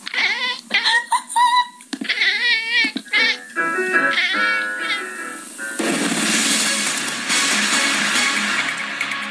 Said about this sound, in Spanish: joven realizando una práctica de canto a través de una videollamada, hasta que es interrumpida por su gato, el cual se sube a la computadora y comienza a cantar junto a su dueña. El felino ha sido bautizado por los internautas como el gato cantante.